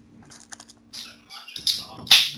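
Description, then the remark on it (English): Crunching of potato chips: several crisp, crackly bites in an uneven rhythm, growing louder toward the end, with no one talking. “You hear him crunching them damn chips.”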